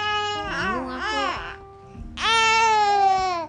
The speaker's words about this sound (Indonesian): masa ya isi podcastnya bayi nangis udah backsound ya backsound backsound